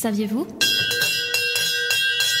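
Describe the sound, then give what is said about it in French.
A stock exchange bell in Brussels rings loud, a sustained metallic tone pulsing with rapid repeated strikes, beginning just after a brief moment of someone speaking. “Vous entendez cette cloche de la bourse derrière moi Eh bien, c'est une chance qu'elle résonne à Bruxelles, car à une certaine époque, c'était Bruges, puis Anvers, qui était le théâtre des principaux échanges commerciaux internationaux.”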